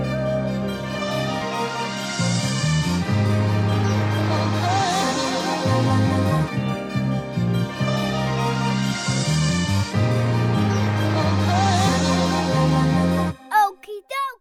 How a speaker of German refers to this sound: Und weil es jetzt ein gleich Sommer wird, ist das das richtige Lied für den Sommer zum Hören.